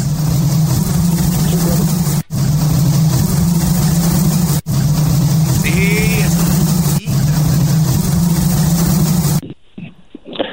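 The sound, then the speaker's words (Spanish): A loud, dense drone of buzzing bees, steady, with a few brief cuts before it stops abruptly near the end. “Vamos a escuchar las abejas.”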